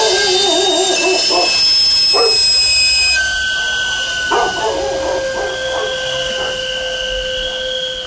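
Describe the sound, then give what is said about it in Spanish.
At night, a dog barks in short, scattered bursts while the steady, shrill steam whistle of a sweet potato vendor hisses continuously in the background, with a wavering higher cry near the start. “Nos asusta y despierta al bebé y al perro.”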